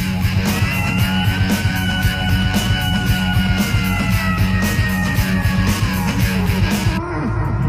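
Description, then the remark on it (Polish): A black cat yowls in long, drawn-out wails over loud, driving rock music with a steady pounding beat, the howls rising and falling like a singer's vocal line before cutting off abruptly. “mamy tu służbowego czarnego kota. Tylko w projekcie XD takie mhm, rzeczy. Tak jest. I on potrafi w muzykę.”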